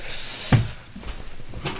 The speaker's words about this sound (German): Warte mal, ich muss mal gerade die Tür zumachen. Meine Tochter hat die offen gelassen und jetzt wackelt die hier immer.